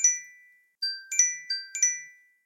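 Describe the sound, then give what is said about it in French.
A phone alarm ringtone plays a bright, chiming melody of quick bell-like notes in a repeating pattern, clear, with no voices over it. “Attendez, je vais mettre un réveil, parce que je sais pas comment faire écouter.”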